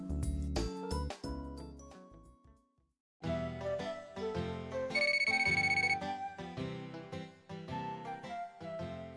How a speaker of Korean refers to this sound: 전화가 걸려왔습니다.